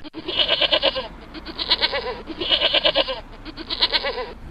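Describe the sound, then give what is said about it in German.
Curious goats at an inn near the top of a steep climb up the Gis bleat loudly, several overlapping wavering cries in two bursts with a short pause between, with no one speaking. “Erst einmal den wie immer sehr neugierigen Ziegengrüß Gott sagen.”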